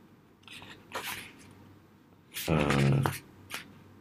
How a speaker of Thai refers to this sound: จะมีเสียงแกะนิดนึงนะครับ อันนี้ผมเพิ่งแกะดีไซน์ Your Life นะครับ ของ Bookscape